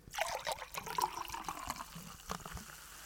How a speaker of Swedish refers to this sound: Oh my god, det lät så bra i hörlurarna. Du måste erkänna att det, det lät nice. Det, men det finns inget bättre än ljudet av kolsyra som man häller ner i ett glas.